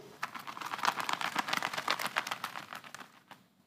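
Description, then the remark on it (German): A rapid, steady flurry of leather glove slaps, a glove struck against the other hand to imitate the quick wing flutter of a small bird darting past, running for about three seconds before stopping abruptly, with no voices. “Und wenn ich die gegen meine andere Hand schlage, dann klingt das wie so ein schnelles Flügelflattern”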